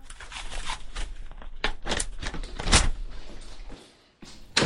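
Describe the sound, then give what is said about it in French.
A door slides and rattles shut, with scraping and knocking throughout, then a short quiet before a final solid thud as it closes. “Elles fermèrent la porte pour la laisser reprendre ses esprits avec un peu d'intimité.”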